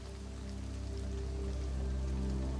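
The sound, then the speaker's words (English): Steady rain falls throughout, a soft continuous patter of drops with a low ambient hum underneath, holding even and fairly quiet with no voices. “As you approach the house, your house, the rain begins to fall slightly faster.”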